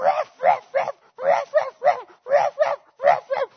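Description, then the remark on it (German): A person imitates the yappy barking of their dog, which barks like a small mutt at anything that passes, producing a quick series of short, sharp bark sounds in clusters of two or three, fairly loud. “herumbellen, wie so ein kleiner Köter, der da drauf ist.”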